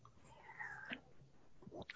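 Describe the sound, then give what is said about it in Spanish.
A quiet sip of tequila from a glass, with soft wet mouth sounds and a small swallow, followed by a couple of faint smacking clicks. No one speaks. “Le da un trago a su tequila.”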